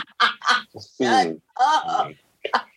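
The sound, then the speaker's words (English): A voice makes a series of loud, sputtering motorboat noises in short bursts, imitating a lawnmower engine trying to start, with brief pauses between the bursts. “if it don't sound like a motherfucking lawnmower about to come on, then you ain't doing it right.”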